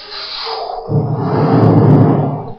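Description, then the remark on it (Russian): A person vocally imitates the muffled rushing, roaring rumble of air moving in the ears during a yawn, rising after a breathy start and sustained for a couple of seconds, fairly loud. “Слышали такой звук в ушах при зевоте? Такой?”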